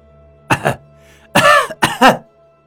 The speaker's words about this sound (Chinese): 龙千军又是一阵咳嗽。手捂住了自己的脖子，脸上的表情都挤到了一起。